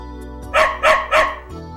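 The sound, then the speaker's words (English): A brown dog barks three times in quick, even succession, sharp, with no voices and only a faint low hum underneath. “Here's a brown dog. A brown dog.”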